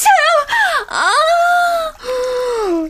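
A person yawns aloud in long, drawn-out voiced stretches, the pitch sliding downward and swooping, with brief breaks between the loud, moan-like phrases.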